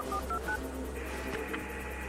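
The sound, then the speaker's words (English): Three quick, evenly spaced keypad dialing beeps from a satellite phone, followed by a steady electronic hiss and hum with no talking. “Who the hell gave you a sat phone?”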